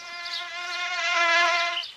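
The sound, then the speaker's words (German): A mosquito in Berlin whines steadily for about two seconds, a thin, high-pitched buzz that swells slightly louder midway and then fades, with no one speaking. “So viel Anstand erwarte ich, wenn schon nicht von den Berlinern selbst, dann auch wenigstens von den Mücken.”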